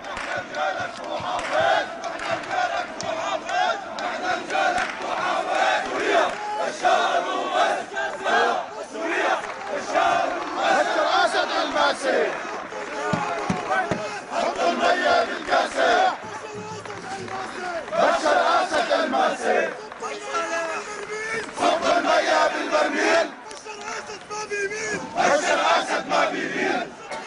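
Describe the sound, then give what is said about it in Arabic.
A large crowd chants political slogans in loud unison, rhythmic massed shouting that carries on without a break for the whole stretch, dense with many voices. “كيف بدلوا هتافات البلد والحرية بهتافات عبودية”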